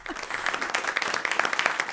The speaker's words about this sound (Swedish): Där, där, där, här ska vi klippa in en applåd för ah. det där måste vara rekordtid.